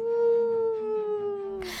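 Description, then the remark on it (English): Dogs howl in the next room in a long, steady, mournful tone that slowly sinks in pitch, clear with no talking, before a short burst of hissy noise cuts in at the end. “My dogs were howling in the next room.”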